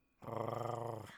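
A single low, rumbling growl that lasts about a second, rough and slightly pulsing, fairly close and steady in loudness, with no talking over it.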